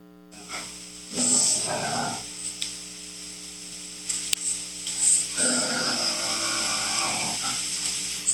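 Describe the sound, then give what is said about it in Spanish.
Two rough, low growling bursts, one short and one longer, heard outside a house, rise out of a steady electrical hum, sounding eerie with quiet gaps in between. “Pero en este que son oscuras, dentro de la casa, escuchen cómo se, fue, se escucha al exterior como si fuera una, el gruñir de una, el, el el el efecto de un mufar.”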